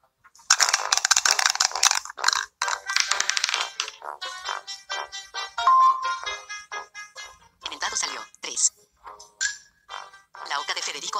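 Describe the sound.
During a board game, a single die rattles briskly in a dice cup for a few seconds, a dense clattering burst, then is thrown and tumbles out with a few short clicks as voices talk over and after it.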